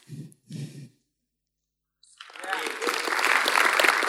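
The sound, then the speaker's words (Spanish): A couple of short breathy vocal bursts, a brief silence, then audience applause swells in and keeps going, a dense, steady clatter of many hands clapping, growing louder toward the end. “dale un buen aplauso.”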